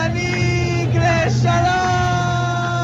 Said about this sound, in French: Ariel Sharon est élu, ceux qui ont encore de la voix hurlent